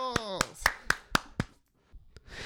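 A short burst of sharp, evenly spaced hand claps, about six in quick steady rhythm, then a pause and one last clap, with a brief sliding tonal sound at the start.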